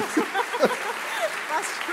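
A steady wash of audience applause lasting a couple of seconds, with a few voices calling out over the clapping.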